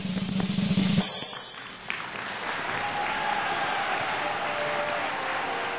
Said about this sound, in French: Elle réussit avec brio, je l'applaudis de toutes mes forces.